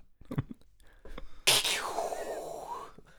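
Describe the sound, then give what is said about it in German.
A sudden sharp thunderclap from a lightning strike, cracking loudly and then rolling off into a fading rumble over a second or so, after some faint, soft voice sounds. “Oh, da ist gerade wieder ein Blitz eingeschlagen, hast du gehört?”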